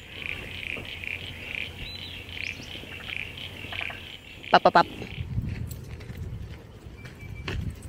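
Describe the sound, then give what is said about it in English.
A steady frog chorus that includes spotted marsh frogs hums in the background. Midway it is broken by a loud burst of rapid, rattling creaks, like a creaking door, from a Crinia parasignifera frog, followed by some low rustling noise. “Yeah, that's him, and that's uh, Crinia parasignifera like a creaky frog or something, i will call him that.”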